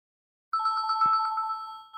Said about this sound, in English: oh, I think we're getting a call right now. Let me answer this.